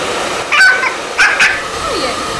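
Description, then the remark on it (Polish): A lively female dog at a dog groomer's lets out a few short, high-pitched yelps and whimpers in quick bursts, moderately loud, against a steady background hiss with no one talking. “Myślę, że zdecydowanie za cierpliwość do tego psa, bo ona jednak przez swoją ciekawość jest bardzo żywiołowa”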